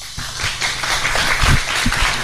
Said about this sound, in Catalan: Doncs, Núria, aplaudiments pel Pep Serra i han vist el disseny d'enguany, eh?